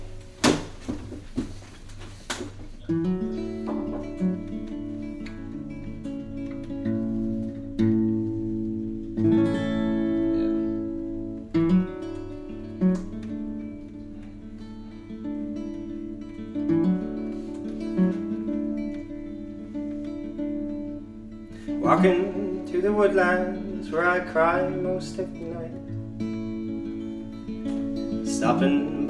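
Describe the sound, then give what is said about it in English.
A recorded pop song plays back steadily for the whole stretch, with a sung vocal over sustained instrumental backing and a low bass line, at moderate volume. “So and then I recorded it, and it's gonna be the next single.”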